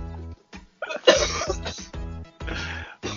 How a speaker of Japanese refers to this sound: 耳が詰まって鼻が悪くなってんじゃないのそう、それで今、咳が出てるんだ、多分